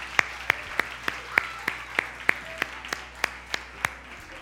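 Steady, rhythmic clapping from a church audience celebrating people who said yes that day: about a dozen sharp, evenly spaced claps in unison at a brisk beat, moderately loud over a faint background hum, with no audible cheering.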